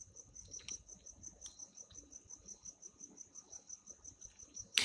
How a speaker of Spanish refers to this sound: escuchar el ruido de grillos que espero que el micrófono esté tomando y lo estén escuchando, me lleva al hermoso regalo de la tranquilidad, el clima y la paz que siento cuando estoy en mi pueblo.